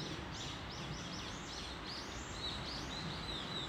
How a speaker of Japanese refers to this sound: 長兵衛中兵衛長兵衛それは目白の鳴き声鳥のさえずりとか仲間同士の地鳴